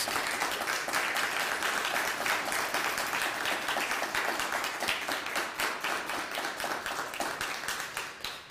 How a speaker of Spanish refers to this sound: Pues ahora sí, amados, otro fuerte aplauso. Vamos.